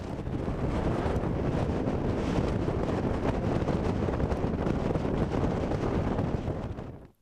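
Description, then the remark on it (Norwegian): Strong outdoor wind in Kurdistan, recorded on the way down from a castle, roars steadily and buffets the microphone with low rumbling gusts, loud for several seconds before cutting off abruptly. No voices. “Så fra vår vei ned fra slottet får du som lytter nøye deg med litt ekte kurdisk vind.”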